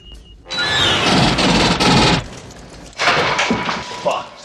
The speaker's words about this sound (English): it's just this ripping of a musical look of string instruments. Yeah, it's just a sting. Yeah. Is that what it's called? Sting. Well, that yeah, that that sort of sound is just a, a score sting.